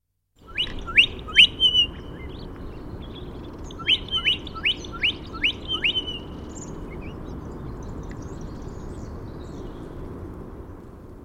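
Birds chirp in two quick bursts of sharp, bright notes, three calls then a run of five or six, over a steady low rumble of background noise with no talking.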